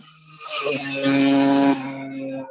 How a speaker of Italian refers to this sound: Sto passando una moto poco rumorosa, eh? aspetta.